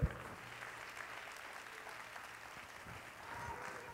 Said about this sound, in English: Let's clap our hands on unto the Lord and give Him praise.